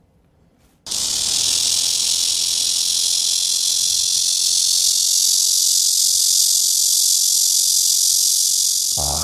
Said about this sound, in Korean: 매미 울음소리가 어떻게 다른지 종마다 아, 다른 울음소리가 있다고 하는데 그 어떤 차이들이 있는지 지금부터 들려드릴 테니까 한번 잘 들어보시길 바라겠습니다. 먼저 말매미의 울음소리입니다.